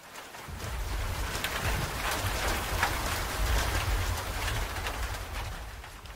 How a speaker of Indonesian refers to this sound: Ya, hujan lagi. Tiap hari hujan terus sih.